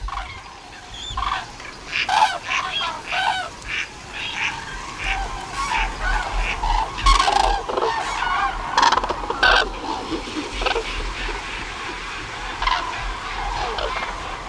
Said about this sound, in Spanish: Están llegando poco a poco, todavía por el norte, en oleadas, los mandos de grullas que anuncian, Tan alegres, oh, que la mala estación no es tan mala.